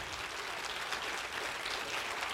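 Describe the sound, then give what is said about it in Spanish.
An audience applauds the Lord during a sermon, a dense, steady wash of many hands clapping that stays at an even loudness for the whole couple of seconds, with no voices breaking through. “Si tú vas a dar un aplauso al Señor, dalo bien.”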